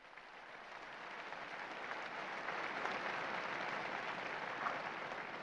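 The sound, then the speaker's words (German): Steady, sustained crowd applause for the newly beatified, with dense clapping that swells slightly and holds at an even, fairly loud level throughout, no voices standing out. “Einen Applaus für die neuen Seligen.”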